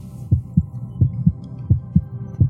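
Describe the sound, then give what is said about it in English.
A deep, muffled heartbeat thumps in steady lub-dub pairs, four beats in quick succession, prominent over a faint low hum, with no voices. “Oh everyone can hear the heartbeat ringing fast.”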